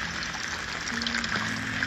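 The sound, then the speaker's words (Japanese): Steady rain patters on an umbrella held while recording outdoors, a dense wash of fine taps with a few sharper drops, and a faint low hum running underneath. “こう傘に当たる雨粒の音とか入っちゃって聞き苦しいものになってるんじゃないかななんて思いながらもちょっとどんな感じに仕上がるのか聞きたくて撮ってるところはありますまああんまりにもこうバタバタバタバタ言ってる場合は薄く BGM かければまあ聞けるものになるかもしれないですね”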